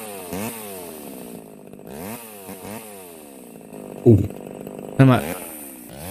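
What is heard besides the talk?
chainsaw running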